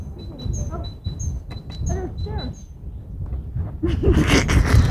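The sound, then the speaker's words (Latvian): Birds sing outdoors in a string of short, high, repeated chirps while a voice talks underneath. Near the end a louder, broader rustling noise rises and covers the calls. “Lai tas, lai tas ienāk mūsos no šiem putniem, no zaļās zāles, no plaukstošiem kokiem.”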